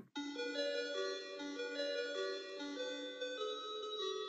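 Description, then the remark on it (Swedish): An ice cream van's bright, tinkling electronic jingle plays a simple repeating melody between houses, steady and fairly loud, with chime-like tones stepping up and down throughout and no voices. “Då hör ni hur en väldigt välbekant melodi börjar ljuda mellan husen.”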